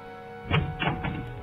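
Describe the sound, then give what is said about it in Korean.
A locked front door rattles and thunks in its frame as someone outside pulls the handle, trying to force it open, with three heavy jolts in quick succession, fairly loud over a low background hum. “현관문이 금방이라도 열리듯이 덜컹거리기 시작했습니다.”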